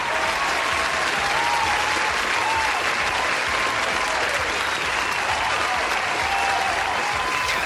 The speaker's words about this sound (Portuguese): Senhor editor, por favor, palmas